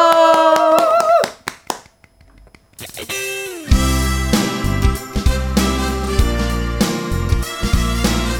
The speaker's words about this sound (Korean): 박수 주세요.